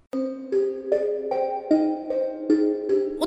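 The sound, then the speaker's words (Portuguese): The telephone of police officer Orlando Brito de Campos Júnior rings with an electronic ringtone melody, a steady run of bright, evenly spaced notes shifting pitch every half second or so, loud, with no one speaking. “telefone de Orlando Brito de Campos Júnior toca.”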